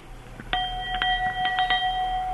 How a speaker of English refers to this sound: Did you ring your bell? I certainly did. I've got a little handbell, yeah. Is it there with you now? It is. Could you give me a tinkle?